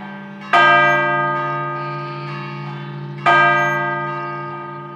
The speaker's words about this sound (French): quand il y a des morts, les églises sonnent beaucoup, beaucoup, très, très vite. Euh, enfin, il y, a un son euh, particulier euh, que j'entends pas ici dans nos campagnes et pendant longtemps.